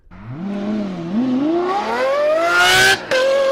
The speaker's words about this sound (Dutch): Want Lamborghini, In Lamborghini heeft een nieuwe motor. Ja, laat hem even de, de voorgaan even horen. Toch? Zullen we eens even kijken hoe die klinkt?